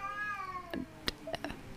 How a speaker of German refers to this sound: Hörst du das? Das sind Katzen, die da gerade kämpfen. Entschuldige bitte, weil du das gerade hörst. Klingt wie zwei Babys.